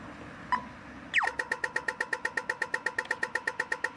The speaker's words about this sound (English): and also the the crossings, the pedestrian crossings, make the weirdest noise. I'm going to edit one in.